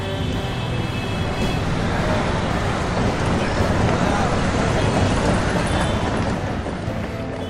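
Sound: city street traffic noise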